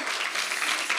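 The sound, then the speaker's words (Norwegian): Steady audience applause, a dense crackle of many hands clapping at once with no individual claps standing out, holding at an even, fairly loud level throughout the short moment. “Wow! Gi en applaus”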